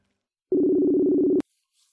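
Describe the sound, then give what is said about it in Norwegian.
A steady, loud video call ringing tone, from a video chat call being placed to a guest, holds one low, buzzy pitch with harmonics for just under a second, then stops abruptly with a click. Near silence follows. “Så nå skal jeg ringe han eh, Bjørn Tore.”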